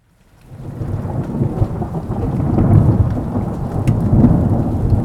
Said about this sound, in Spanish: Otra vez ese ruido cegador. Ojalá el trueno solo trajera consigo la humedad y el frío que envuelven a la caverna con su llegada, pero no derritiera con su viento las sombras frente a nuestros ojos.